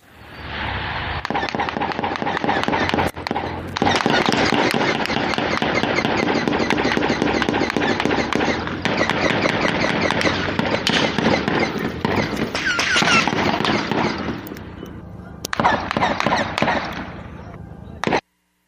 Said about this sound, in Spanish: y de acuerdo con testimonios, la balacera duró cerca de dos horas y se escuchó de la siguiente manera.